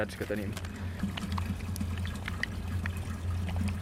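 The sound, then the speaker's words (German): Water being mixed with reagents from two small bottles in a small vial for a pharmacy nitrate test, then shaken: faint trickling and sloshing of liquid with scattered little clicks and taps over a steady low hum. “Ich mische das Wasser jetzt mit den Reagenzien aus diesen zwei Fläschchen.”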